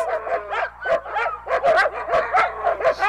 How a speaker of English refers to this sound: He followed the barking noises and found a room full of dogs.